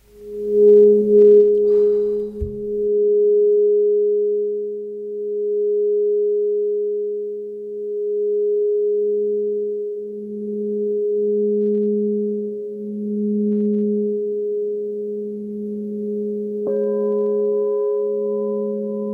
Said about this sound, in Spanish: la impronta energética de este set, refiriéndose a esos cuencos, tiene que ver con la apertura del corazón y la activación del amor incondicional.